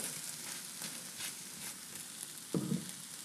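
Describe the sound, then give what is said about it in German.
Steady sizzling of tomatoes frying in a pan, with a few soft scraping strokes of a heat-resistant silicone spatula and a brief louder scrape near the end. No one speaks. “Auch in der Pfanne, da, da kann man immer vom Rand und überall richtig schön alles runterputzen.”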